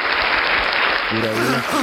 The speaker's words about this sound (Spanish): Cuando dice aplauso, le dan a los aplausos. Sí, ahí, dice, en el rótulo dice.